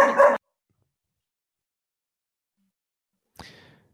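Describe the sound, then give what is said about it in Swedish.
Two short dog barks separated by about three seconds of silence, the first loud and full, the second sharper and a bit quieter, with no talking. “Det är troligtvis en hund.”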